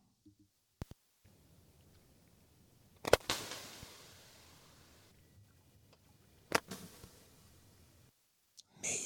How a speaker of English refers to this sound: This is the North Atlantic right whale gunshot sound. And this is produced by a lone adult my, uh, right whale